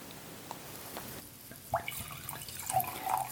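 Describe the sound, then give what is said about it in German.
Wine trickles and splashes into a glass, with a few soft gurgles and faint high clinks over a quiet, steady hiss; no one speaks. “Ich habe mir jetzt, während du deinen ersten Schluck trinkst, mal nochmal ein Glas vom ersten eingeschenkt.”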